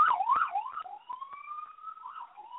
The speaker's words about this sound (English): My, my apologies, everyone. My okay. apologies for the, uh, you know, I'm, I'm obviously out in the uh, out in the streets. All these uh, sirens going by, so my apologies.